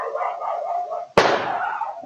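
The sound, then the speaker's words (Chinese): A Siberian Husky named Falco barks steadily in a backyard, then a single loud, sharp gunshot cracks and rings out briefly, hitting the dog in the face, before the barking carries on. Recorded by a neighbour's security camera. “A shot went off, and it ended up hitting my dog in the face.”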